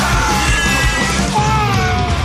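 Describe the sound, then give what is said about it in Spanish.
A child screams loudly and continuously for about two seconds, a shrill, sustained yell with no words or pauses. “Poder de super chillar.”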